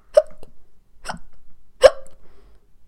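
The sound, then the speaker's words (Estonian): A person demonstrates hiccups with three sharp hiccup sounds, spaced about a second apart, fairly loud with quiet gaps between them. “luksumine on see”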